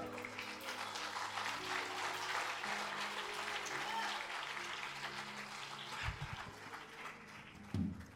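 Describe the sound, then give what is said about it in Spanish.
An audience claps steadily and densely for several seconds, applauding Jesus, a thick wash of applause that holds level throughout, with a few brief low bumps near the end. “Un aplauso a mi Jesús bien fuerte.”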